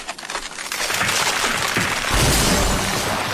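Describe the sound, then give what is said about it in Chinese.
Harsh crackling and splintering noises build into a loud, sustained crunching rumble of ice breaking apart on a frozen bay with a car on it, with sharp snaps scattered through a dense, noisy roar and a deeper low-end surge near the end. “冰再继续裂开，车子就会沉到海湾底了。”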